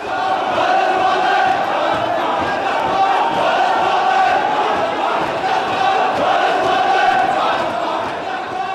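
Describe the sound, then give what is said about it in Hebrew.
A large crowd of thousands of protesters storming the parliament building in the Green Zone shouts and roars continuously, many voices blending into a dense, agitated din with rising and falling chants, loud throughout. “אלפים פשוט מסתערים פעמיים על בניין הפרלמנט בגרינזון תוך 72 שעות.”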